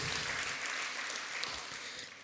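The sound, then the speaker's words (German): A crowd claps steadily, a dense wash of many hands with no individual beats standing out, holding a fairly even level throughout and tapering only slightly at the end. “So, ja, Applaus, oder?”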